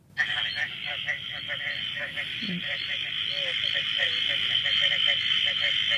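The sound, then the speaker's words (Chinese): A tiger frog calls in a rapid series of short, throaty croaks repeated throughout, over a constant high-pitched buzzing chorus that fills the background. “这个是不是就是虎皮蛙的声音？”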